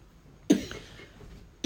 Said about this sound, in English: I have a cough, Daddy. Oh, did you want to drink some water?